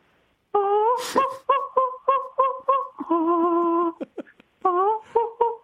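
A soprano's singing voice, processed as a parody into chimp-like hoots and squeals, with a rapid run of short, pitched yelps in a bouncing rhythm, a sustained wavering note, then more quick hoots.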